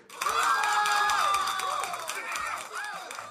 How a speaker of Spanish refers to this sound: Un aplauso para José Anthony Torres